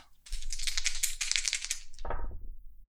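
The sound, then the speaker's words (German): Two ten-sided dice, a glowing Cthulhu die for the tens and a blue die for the ones, rattle steadily for about two seconds, then tumble out with a short, clattering roll before stopping, rolled for the crew's wounds in a game. No one speaks. “Wir sind noch nicht fertig einmal noch würfeln für die Verwundungen der Crew.”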